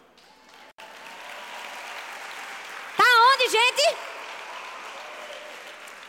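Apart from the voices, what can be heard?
audience applause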